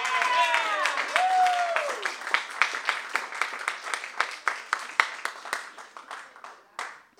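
An audience at an evening talk event breaks into applause welcoming the two speakers, a dense patter of clapping with a few whoops and cheers at the start, then thinning out into scattered, irregular claps as it dies down.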